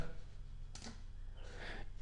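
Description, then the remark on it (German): A couple of soft computer keyboard key clicks, including a press of the Shift key: one sharp tap, then a slightly longer press a moment later, over a faint low hum with no talking. “Mit Druck der Shift-Taste, die Umschalttaste auf der Tastatur, werden sogar noch Sonderzeichen eingeführt, um die Sicherheit von meinem Passwort noch weiter zu erhöhen.”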